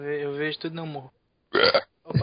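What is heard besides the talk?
burp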